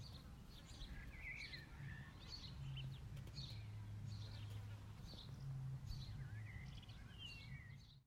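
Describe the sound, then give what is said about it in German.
A bee buzzes low and steady in passes that swell and fade, while birds chirp and twitter repeatedly in the background over a soft outdoor hush. “Vielleicht ein paar Vögel, eine Biene, den Wind?”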